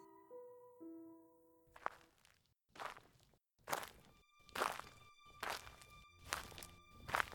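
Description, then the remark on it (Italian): Steady footsteps crunch along a white stone path at night, about seven even paces with brief gaps between them, preceded by a few faint sustained tones that fade as the walking begins. “Ma mi incammino nella direzione, percorro la strada, ma mi incammino nella direzione di là della siepe per affacciarmi oltre la strada, lo spazio della, della siepe e il muro della chiesa, il muro del cimitero.”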